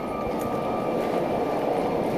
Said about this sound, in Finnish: Juna saapuu perille Jungfron huipulle.